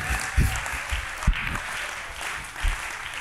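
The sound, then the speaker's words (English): A crowd claps together as a clap offering to God, in a dense, steady wash of applause, with a few heavier low thumps or stomps popping out every second or so. “Come on, give God a clap offering, somebody.”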